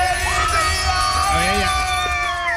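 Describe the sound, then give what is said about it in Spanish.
A studio crew shouts and whoops together in a lively burst of cheering, rising and falling pitches overlapping on a steady background hum, loud throughout. “mira la gritería que armado con 95 dólares”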